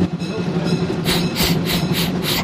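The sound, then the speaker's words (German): A steam locomotive labours uphill on the island of Rügen with a steady rumbling base, then breaks into a run of five or six sharp, rhythmic chuffs, loud and evenly spaced. “Ja, ich muss ganz schön schnaufen, die Lok.”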